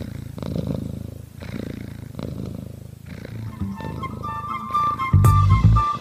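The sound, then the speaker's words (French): A domestic cat purring, a steady low rumbling that pulses in rhythmic waves with each breath, growing louder and deeper toward the end, with no voices. “Vous l'avez reconnu, c'est le ronronnement du chat, bien sûr.”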